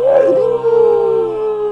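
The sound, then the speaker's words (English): A person's voice imitates a werewolf howl: one sustained, wavering note that rises briefly at the start and then holds steady, loud, with no other sounds around it. “that's my howl.”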